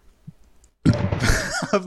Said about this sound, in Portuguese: Peraí, ah, veio o arroto na hora. Cara, queimou lá no arroto. Aqui veio o arroto na hora. Desculpa.